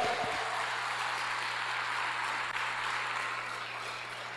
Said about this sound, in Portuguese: Se você entendeu, dê um aplauso ao Senhor, por favor, vai.